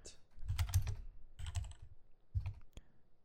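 Bursts of computer keyboard typing in three clustered flurries of quick clicks, moderately loud, with short pauses between the runs and no voices, as someone types to look up the Conference USA basketball standings.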